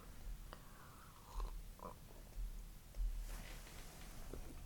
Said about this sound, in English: Uh, here, I'm going to take a sip of my coffee. Give me one second.